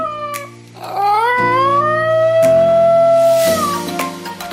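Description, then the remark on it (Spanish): A small brown dog with very pointed ears, of a kind that does not bark, lets out a loud, yodel-like howl: one long sustained cry that slides upward, holds its pitch, then trails off, with no barking at all. “Este sonido es como un canto tiroles, entonces el, perro no ladra, sino que emite un sonido parecido al canto tiroles.”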